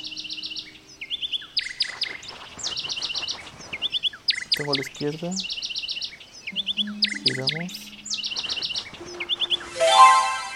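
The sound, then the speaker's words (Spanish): In an audio game, a bird chirps in quick repeated bursts throughout, steady and fairly clear, as the player tries to catch it by walking toward it and keeping it centered in both ears. A person speaks briefly in the middle, and a bright rising swoosh ends it. “Muy bien, ahora trata de atrapar al pájaro.”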